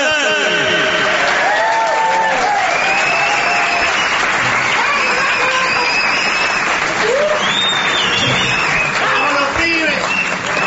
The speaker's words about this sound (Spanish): Señoras, señores, pueden prolongar su aplauso para recibir a la trompeta dorada.